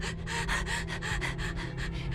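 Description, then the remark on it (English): Rapid breathing with quick rhythmic pulses of airy inhale and exhale, almost panting, steady and fairly loud over a low background hum, with no talking. “I hear my breathing.”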